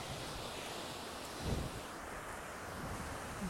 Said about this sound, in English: Hope you enjoy the sounds of the beach with me.